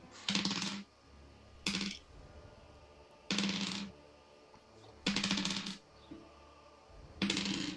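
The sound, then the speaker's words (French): A handful of eight eight-sided dice clatters across a hard surface in five separate loud, rattling rolls, each burst lasting about half a second, with short pauses between and no talking. “C'est beaucoup de dés, ça.”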